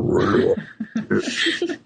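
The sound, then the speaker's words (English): A human voice makes a harsh, guttural growling and snarling in imitation of a monstrous dog, like Satan's dog voiced for an evil entity in a video game, loud, in a few rough bursts with brief breaks. “so those are kind of rough ones, or very kind of guttural voices if you're doing a video game where you're playing some evil entity, maybe like, you know, Satan's dog.”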